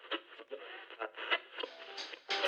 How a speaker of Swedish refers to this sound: Först var det bara knaster och brus. Hon rattade runt kanalerna och försökte hitta någonting hon tyckte om och lyssna på.